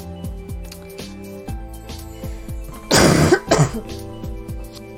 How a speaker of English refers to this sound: After I cough my guts up. I'm fine! Everything is fine!